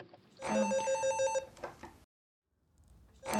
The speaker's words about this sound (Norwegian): På et lite døgnbemannet kontor kimer det i en fasttelefon. Saksbehandlervakta i Utenriksdepartementet er som vanlig alene på nattevakt.